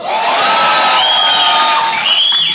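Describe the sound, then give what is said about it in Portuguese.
A large church audience cheers excitedly on request during a service where babies are dedicated to Jesus, a dense, loud wash of many voices with high whoops and shouts rising above the roar, sustained for the full stretch without a break. “Eu vou falar de novo e, e você finge que você está empolgado.”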